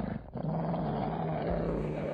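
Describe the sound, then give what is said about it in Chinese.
Several dogs growl in a low, rough, continuous rumble that stays loud for about two seconds, with a steady snarling drone and no speech, as they bare their sharp teeth and lunge at a person at night. “而身边的狗露出了他们锋利的牙齿，猛地向他扑了过来。”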